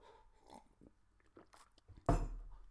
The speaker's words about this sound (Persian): الان میخوام چیز بخورم یه کمی اسکافا بخورم